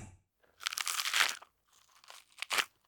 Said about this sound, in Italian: chiuse gli occhi e cominciò a masticare. La consistenza era diversa, soffice, un po' gommosa, non proprio esaltante. Ma il sapore era decisamente quello.